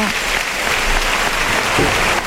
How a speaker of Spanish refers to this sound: Y Roca Rey que recibe la ovación del público en los medios cuando sale la cuadrilla eh, de mulilleros y sus mulillas castañas.